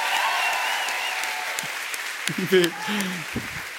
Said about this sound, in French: C'est drôle parce qu'on applaudit ça, Merci. en soi, il n'y a pas eu un mérite énorme dans la ben, conception.